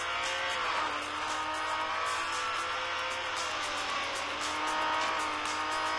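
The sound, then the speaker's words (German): A Lamborghini engine in a racing video game roars steadily while tires squeal in sustained, shifting tones through the whole stretch, loud and continuous with no talking. “Und jetzt im Moment, ja, ihr hört schon wieder das Reifenquietschen, aber die Reifen sind, das merke ich auf jeden Fall in der Fahrweise am Anfang noch nicht so abgenutzt.”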